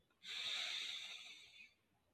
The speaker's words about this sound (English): So deep breath in.